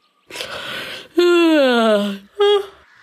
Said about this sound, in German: Doch da hörte Lämmchen Lena ein leises Gähnen aus einer kleinen Grube in der Erde.